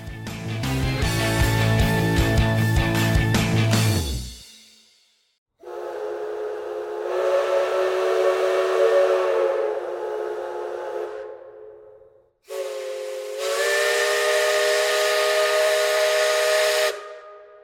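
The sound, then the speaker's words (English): A steam train whistle, recorded in North Carolina, sounds loud in long, breathy blasts, the first one over heavy rumbling, then two sustained, chord-like wails in a row, each with a hissy edge. “They traveled to North Carolina and recorded over 15 steam whistles, which are incredibly challenging sounds to record”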